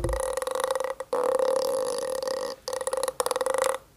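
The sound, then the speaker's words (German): A friction drum (Waldteufel), made of a cord wound around a piece of wood with a membrane at the end of the cord, whirled around, giving loud, rasping creaks in long buzzing bursts broken by a few short pauses, with no one talking. “Und naja, dann ist das hier nochmal so ein, wie heißt das, Waldteufel, glaube ich.”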